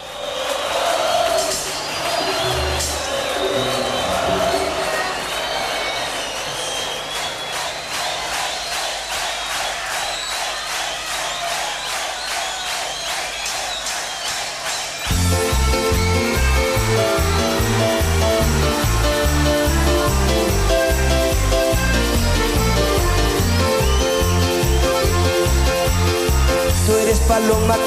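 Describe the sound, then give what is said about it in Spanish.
A crowd cheers and shouts for several seconds, then a loud, bass-heavy band kicks in and a solo singer's song plays on, energetic, over the lingering audience noise. “Pero ahora escucharemos algo bien representativo de él. …, ….”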